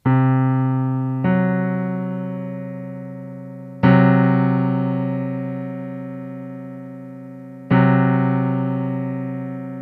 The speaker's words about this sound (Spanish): La cuarta aumentada o quinta disminuida, alias el tritono. Y esto suena de esta manera.